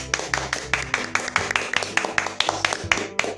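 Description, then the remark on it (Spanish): Hand clapping in a quick, steady rhythm, roughly fifteen sharp claps over a few seconds, with a faint low hum underneath and no talking. “Pues un aplauso”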